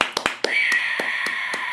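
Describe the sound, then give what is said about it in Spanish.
Applause in sharp, evenly spaced claps, about four each second, over a steady high-pitched hiss that continues throughout. No one speaks. “Un aplauso por, ustedes, sí, claro, claro.”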